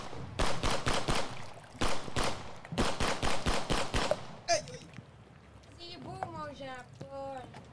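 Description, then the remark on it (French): Loud, rapid gunshots from a rifle crack out in several quick bursts of six or seven shots each, then fall silent as voices start talking over a faint background. “T'as pas entendu? Il a pété son fusil!”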